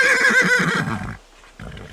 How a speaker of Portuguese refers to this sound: O que aconteceu então foi muito impressionante. A estátua de repente se tornou um cavalo de verdade ele primeiro se espreguiçou, relinchando